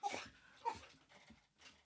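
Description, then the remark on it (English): A dog, told to speak, gives two short, sharp vocal bursts about half a second apart, then a softer whining yelp, low in level, with no talking. “Okay, counting the dog again.”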